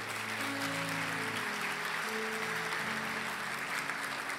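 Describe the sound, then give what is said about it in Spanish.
An audience gives an applause to God, clapping steadily for several seconds, a dense, even wash of clapping that holds at full loudness throughout, with sustained organ or keyboard chords playing underneath. “El que lo crea, déle un aplauso a Dios.”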